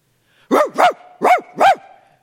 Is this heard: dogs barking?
yes